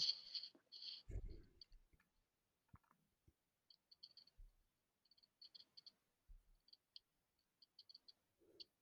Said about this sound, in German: Okay. Würfel mal mit dem 100er Würfel.